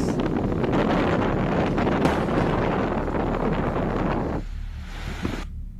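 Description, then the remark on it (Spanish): Steady, loud rush of wind and rain outside, a dense roar that fills the scene for several seconds before thinning out and fading near the end. “Se fue la electricidad y la lluvia sigue.”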